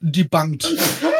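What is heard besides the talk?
sneeze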